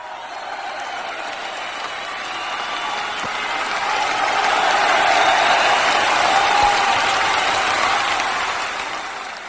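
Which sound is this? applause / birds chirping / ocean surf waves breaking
applause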